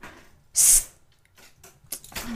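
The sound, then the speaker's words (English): A spray bottle gives one loud, sharp spritz of water at a cat to get her down from a high spot, a quick hissing burst, followed by quieter rustling and a fainter puff of hiss shortly after. “Damn spray bottle.”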